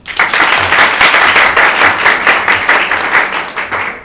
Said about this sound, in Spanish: Bueno, como es la primera vez que aplaudimos, voy a intentar intentaré luego editar el, el, el audio, pero no aplaudimos, ¿vale?